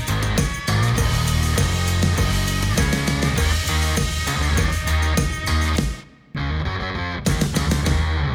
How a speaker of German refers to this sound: Im Hintergrund hörst du sicher an den Rasenmeier. Da wird nämlich der Rasen schon wieder schön gemacht